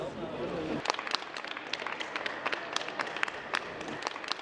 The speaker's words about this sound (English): The good feeling was shared by the waiting crowd. The applause was followed by gifts